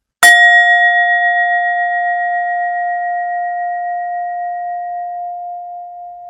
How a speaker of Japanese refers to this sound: 鍋敷きの上にシンギングボールを乗せています。で、この状態で今、鳴らしていきますね。